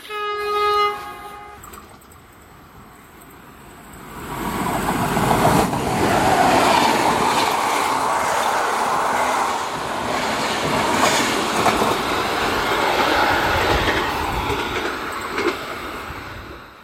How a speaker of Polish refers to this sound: pociąg jedzie i mi przerywa. Przepraszam za te dźwięki w tle